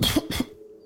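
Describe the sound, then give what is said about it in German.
Two quick, raspy coughs in close succession, voiced by a person acting out a coughing fit, fairly loud, followed by a faint low hum. “öffnet mit seinem, mit seinem Säbel diesen Sack und hustend”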